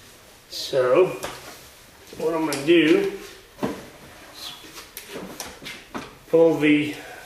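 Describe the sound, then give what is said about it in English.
A plastic soap dispenser drawer slides and scrapes completely out of a washing machine in a few short bursts, released by pushing down a plastic lever on the left side inside the drawer, with a man talking over it. “And that lets you pull the soap drawer completely out.”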